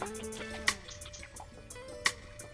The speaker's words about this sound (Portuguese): E a bomba começou a ranger, mas nada acontecia. A bomba continuava apenas fazendo barulho, fazendo ruído. Mas então de repente surgiu um fiozinho d'água